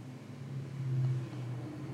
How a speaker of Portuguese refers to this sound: a moto, bacana.